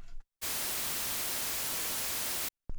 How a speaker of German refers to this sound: So, jetzt machen wir den Versuch nochmal. Das heißt, das Rauschen zuerst ohne das Plugin